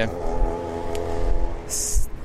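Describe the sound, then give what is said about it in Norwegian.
Steady low rumble of car traffic with engines droning and a brief higher hiss near the end, a continuous wash of passing vehicles without distinct separate pass-bys. “Nå var det veldig mye biler her, folkens.”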